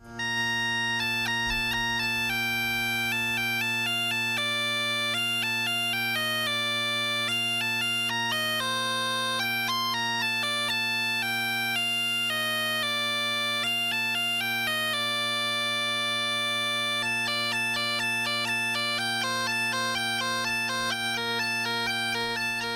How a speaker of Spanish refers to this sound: Qué maravilla poder escuchar esta música, porque no se quieren ustedes que es fácil el tocar la gaita, porque eso tiene, tiene su aquel.